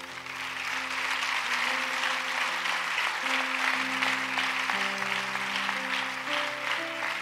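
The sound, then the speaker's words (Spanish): A large church audience claps steadily and loudly for the Lord during a service, a dense, sustained wash of applause over held keyboard or organ chords shifting underneath. “¿Le puede dar un fuerte aplauso al Señor?”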